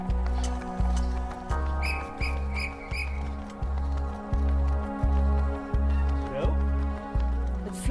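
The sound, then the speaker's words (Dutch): A trainer's whistle gives a few short, shrill toots in quick succession early on during training, over a steady, rhythmic low thumping that continues throughout. “het signaal van de trainer klinkt? Ja, fluitje. Fluitje van de trainer.”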